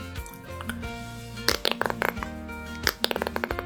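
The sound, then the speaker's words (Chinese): A mouth imitation of the squeaking of an emptied Northeast Chinese ground-cherry skin: two bursts of quick, croaky squeaks and pops made by controlling and squeezing air between tongue and lips, a bit like a toad, with no speech. “就是你控制舌头跟你的嘴唇之间流的气和挤压的声音，就能出来这个咬姑娘的声音。”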